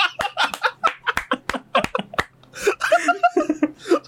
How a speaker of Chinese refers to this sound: 大家有听出来吗？打嗝是忽然间来的，无法。那个顿点就是他打嗝喽。